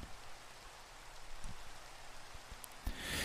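Steady rain falls with a dense, hissing wash, punctuated by a few sharper drips and taps, brightening toward the end. No voices are present.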